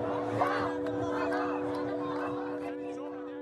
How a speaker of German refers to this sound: Jubel und Feuerwerk auf dem Tahrirplatz in Kairo.